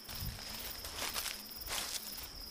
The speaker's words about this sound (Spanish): La maleza crujía bajo mis botas, se escuchaban los grillos y algunas luciérnagas daban su posición.